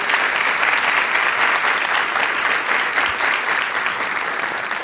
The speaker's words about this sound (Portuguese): O Cacá Bueno está aqui com a gente, podem aplaudir.